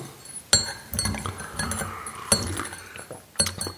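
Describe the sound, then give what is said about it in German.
A teapot rattles and clinks with sharp ceramic knocks as it is moved forward, a few distinct clanks at the start, middle and end, with softer jostling rattles in between; something in the pot is broken. “Diese Tanne, äh, Kanne, ne? die ist richtig geil. Aber man kann sie so geil auch nach vorne bewegen. Ja. Aber sie raschelt so ein bisschen.”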